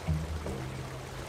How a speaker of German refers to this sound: zeigt sich der rauschende Strom, der wenige Schritte neben dem Einstieg durch eine Betonrinne sprudelt und wenig später in einem tosenden Wasserfall in Richtung Kläranlage verschwindet.